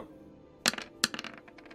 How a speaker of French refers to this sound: Comme ça, tu jettes les dés.